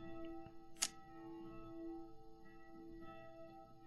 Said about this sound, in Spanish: Mira, momento campana. Tenemos una iglesia aquí al lado que suena la campana y ya, momento campana.